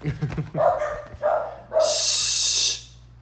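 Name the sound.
dogs barking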